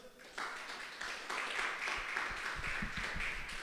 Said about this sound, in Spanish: Puede darle un fuerte aplauso a Dios.